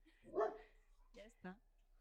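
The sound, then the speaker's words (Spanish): A dog lets out three short, sharp barks, the first rougher and the last two quick yappy ones close together, with quiet gaps between. “Muy bien ah, ya conoces a ese perrete”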